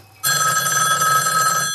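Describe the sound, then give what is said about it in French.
A telephone bell rings loudly and steadily, a sustained metallic jangle that starts abruptly and continues without pause, with no voices. “Le téléphone des journalistes, mais aussi, bien sûr, des prétendants dans l'attente interminable du coup de fil présidentiel.”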